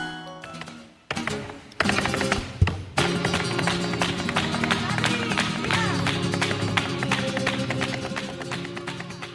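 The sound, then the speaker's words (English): Spanish flamenco guitar plays with brisk, rhythmic hand clapping and singing, starting with a brief strummed intro, then settling into a steady, loud performance with sharp percussive accents throughout. “Listening to this sound, the music of the guitar, the singing, and clapping of hands, do you feel a roller coaster of emotions?”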